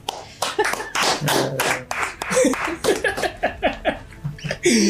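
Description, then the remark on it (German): A small group claps for a druid costume in a steady, fairly loud burst of applause lasting several seconds, with a few voices laughing and chattering over the clapping. “Ich finde, äh, wir können auch immer applaudieren für das Druiden-Kostüm.”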